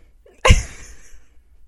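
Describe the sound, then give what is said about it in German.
A single sharp sneeze bursts out, a quick explosive blast that trails off into a breathy fade with no talking around it. “Gesundheit?”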